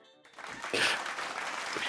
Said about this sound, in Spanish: Pero en el Pasquín no, en el Pasquín lo celebramos, aplausos.